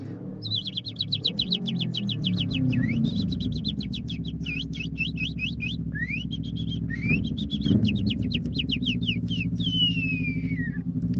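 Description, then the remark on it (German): A person imitates bird chirping, recorded as a voice message, with rapid, high-pitched trilled tweets, nearly continuous for about ten seconds, over the steady low rumble of a motorcycle idling right next to them. “Aber natürlich möchte ich euch gerne trotzdem an meinem Talent teilhaben lassen und für euch eine Runde zwitschern.”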